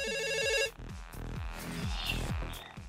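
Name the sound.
telephone ringing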